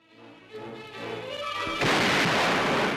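Naval broadside gunfire from ships at sea, fired at coastal batteries: a low, building rumble with a dull thump, then a loud, broad blast that swells into a sustained roaring crash, with no voices.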